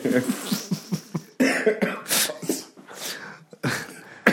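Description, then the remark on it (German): A run of repeated coughs, fairly loud, in quick bursts with brief pauses between them, including a few harsher, breathier hacks toward the end. “Gesundheit.”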